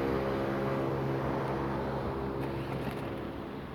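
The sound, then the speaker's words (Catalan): A car engine rumbles, easing down as the vehicle pulls in and comes to a stop, its low steady drone continuing without any voices. “parece para un, un cotxe un cotxe que, clar, com que he parat jo en el pessebre”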